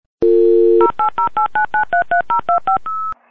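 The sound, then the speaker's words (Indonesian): A brief dial tone gives way to a quick, evenly paced run of about a dozen touch-tone dialing beeps placing a phone call, ending on a slightly longer tone. The sound is loud, with no talking. “yaudah yuk kita telepon si Lalanya langsung”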